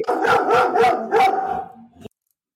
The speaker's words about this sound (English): Neither does your dog by the sounds of it. Is that Finley,